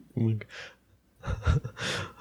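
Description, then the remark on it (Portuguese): Heavy, ragged panting, with breathy gasps coming in uneven bursts, some of them voiced and strained, separated by a brief quiet pause. “você tá mega ofegante, cara.”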